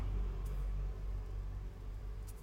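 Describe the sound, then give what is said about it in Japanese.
A steady low rumble of traffic muffled from inside a car with one person alone in it, with a couple of faint hissing swells as other cars pass outside. No one speaks. “まあ、他の車の音とか聞こえますけど”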